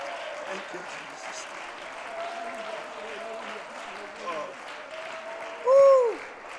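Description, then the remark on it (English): A church audience claps steadily and cheers, a dense wash of applause with voices rising through it, and a brief louder shout near the end. “Come on, would you clap your hands and would you lift your voice and would you let God know that we're here for purpose today?”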